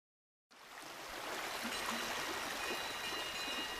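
flowing stream water

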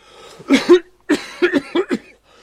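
coughing

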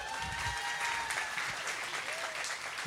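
audience applause

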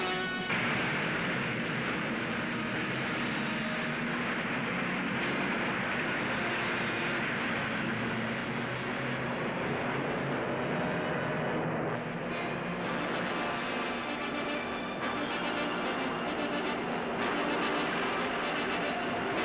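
subway train rumbling past

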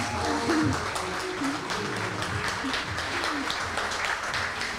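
audience applause

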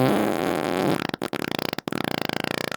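fart sound effect

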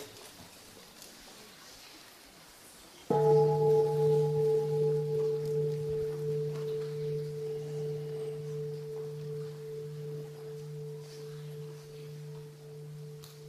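bell ringing and fading

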